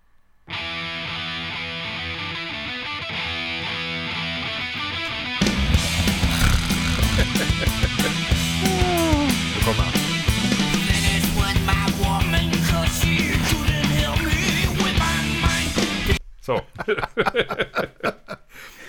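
A heavy metal band plays loud and close, with a distorted guitar riff that opens alone before pounding drums and full band crash in, then cuts off near the end.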